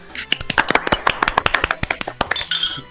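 A short round of applause from what sounds like a few people, welcoming a newly introduced member of the group: quick, irregular, sharp claps, fairly loud and steady for a few seconds, with no talking over them.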